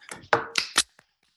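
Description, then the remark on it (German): A handful of sharp, irregular claps thanking a guest, about five in quick succession with uneven spacing, fading out to a last faint one. No one speaks. “Auch so mal klatschen für ein paar.”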